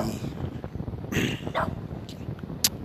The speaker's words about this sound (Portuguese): Ai, cachorro, já entendi.